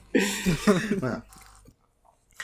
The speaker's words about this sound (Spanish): se escuchó el mordisco, así por Escuché. No, crocante.